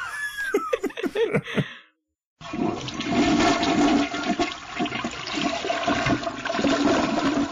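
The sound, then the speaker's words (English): Brief laughter and voices, a short silence, then a loud toilet flush rushes and gurgles steadily for about five seconds until the end. “Well, will flush that soul right down the toilet.”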